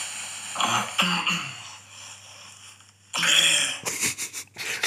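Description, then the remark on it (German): A few rough coughs and throat-clearing sounds from a sick person, recorded by an app during sleep, fairly loud with a wheezy, raspy edge, separated by quiet pauses over faint background hiss. No one speaks. “da ich jetzt auch krank bin, habe ich halt die ganze Zeit gehustet und ich war irgendwie so unruhig.”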